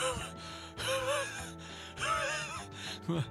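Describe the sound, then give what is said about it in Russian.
A voice imitates the breathless panting of someone running out of breath while speeding up: a handful of loud, rasping gasps with strained, half-voiced moans, coming in uneven heaving bursts. “И я понимал то, что я отстаю, я начинал ускоряться, мне не хватало дыхания, я начинал, у меня появлялась одышка, то есть я такой”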